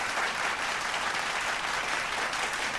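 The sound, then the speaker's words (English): An audience claps steadily for about three seconds, a dense, even wash of many hands with no break and no voices standing out. “Let's clap that up.”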